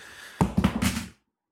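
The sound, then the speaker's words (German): A chair suddenly collapses under a seated person, a burst of clattering thuds and knocks lasting under a second before everything falls silent. “Der Stuhl ist unter mir zusammengebrochen.”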